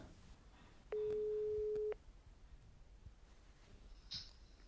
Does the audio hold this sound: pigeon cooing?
no